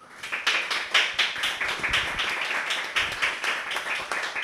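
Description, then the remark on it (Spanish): An audience breaks into applause at the end of a talk, a steady wash of many hands clapping at once, sustained and fairly even in loudness for several seconds with no voices over it. “Un aplauso, por favor.”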